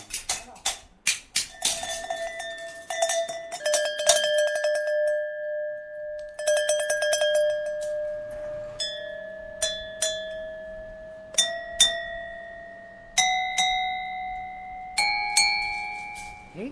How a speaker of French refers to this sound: Et maintenant, ce qui reste à faire, c'est le réglage du son. Je vais vous faire écouter le son maintenant et après le réglage, vous verrez la différence. Là, la cloche n'a pas de son.